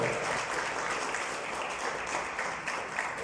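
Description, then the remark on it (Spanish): An audience applauding, giving its applause to the Lord: many hands clapping in a dense, steady wash of sound that stays loud and even for the whole few seconds, with no clear voices standing out. “Déselo al Señor ese aplauso si se lo va a dar, por favor.”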